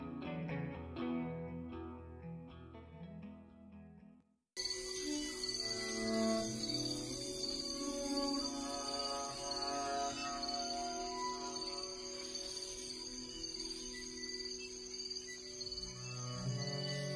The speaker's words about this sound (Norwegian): Men du hører også Amazonas med kvitrende fugler, insekter og en nærgående jaguar.